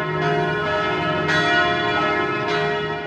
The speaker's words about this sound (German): zwischen den Hochhäusern hörte ich richtig die Glocken läuten